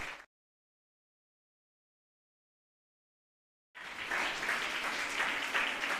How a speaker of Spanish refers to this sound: Invito a que demos un aplauso bien fuerte al Señor, hermano.